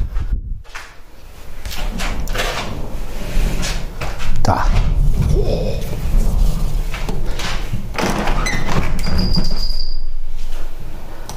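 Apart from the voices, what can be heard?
thunder rumbling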